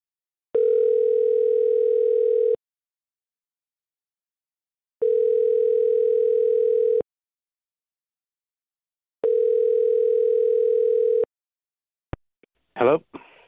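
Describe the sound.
A phone's ringback tone purrs three times, each steady buzzing ring lasting about two seconds with longer silent pauses between, followed by a brief voice as someone picks up, as the radio station Mix 94.7 places a call in its Waiting by the Phone segment.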